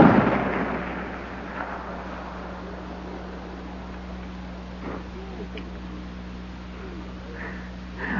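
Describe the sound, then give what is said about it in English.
A single loud gunshot from a big game rifle fired in Alaska cracks at the very start, then rumbles away into a long echoing tail over a steady low background hum. “That's the sound of a big game rifle being fired right here in the heart of Alaska.”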